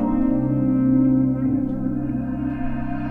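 Opening bars of a new rap track from Spain: a steady, layered synth chord with heavy echo and chorus effects, droning evenly at moderate loudness with no vocals yet.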